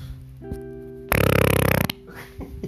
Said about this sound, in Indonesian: aku ngentut nih